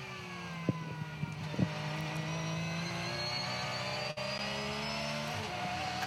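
A race car engine at the 2024 Bathurst 12 Hour race at the Mountain, around 5:35 in the morning, roars steadily, its pitch climbing as it accelerates, with a couple of quick gear-change blips early on and a brief dip before it pulls on again. No one speaks.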